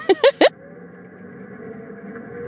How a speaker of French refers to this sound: Et là, sans crier gare, qui est-ce qui débarque au volant de sa golfette électrique